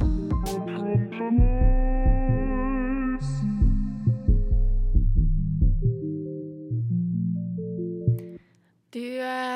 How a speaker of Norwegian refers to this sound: Det var veldig digg låt. Ja, det var veldig chill låt.